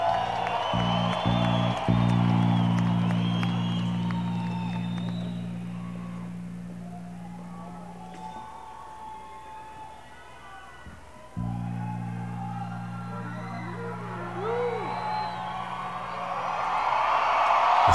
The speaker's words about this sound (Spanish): Y un aplauso para la Orquesta Filarmónica de Bogotá.